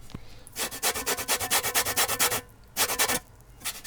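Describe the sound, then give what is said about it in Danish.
A lemon is grated as one of the last ingredients for a koldskål: quick, rhythmic rasping strokes in a steady run of about a dozen, a short pause, then a few more scrapes. No one speaks. “Skal vi lige prøve at lytte lidt til citronen, der bliver reddet igen?”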